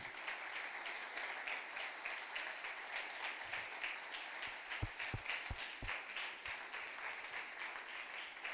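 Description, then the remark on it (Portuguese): A crowd applauds steadily to thank God, a dense wash of many hands clapping together that holds at an even level throughout, with no voices standing out. “Vamos agradecer a Deus com palmas por isso, porque Ele nos permite viver isso.”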